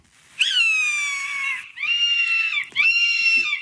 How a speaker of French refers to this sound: Ce sont des rapaces. Ouais, ouais. Ah, j'adore. Je sais pas pourquoi, depuis toute petite, j'ai une passion pour les rapaces, surtout l'aigle, l'aigle mhm. royal.